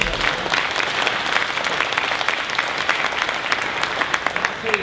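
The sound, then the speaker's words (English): Steady, sustained applause from a standing crowd, a dense wash of many hands clapping at an even level for the full stretch, with a few faint voices mixed in. “I'm sure he appreciates the applause, and all of our veterans appreciate you standing.”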